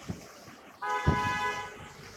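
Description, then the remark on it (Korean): A car horn blares in one long, sustained honk amid the low rumble of street traffic, beginning after a brief quiet stretch and holding steady, fairly loud. “아이고 뻥뻥뻥뻥뻥 아 그럴만하구나 이 사람들이 신호를 지켜야지.”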